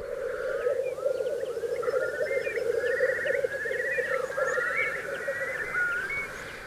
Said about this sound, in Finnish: Huhtikuun alkupuolella teerien soidinääni kantautuu kilometrien päähän.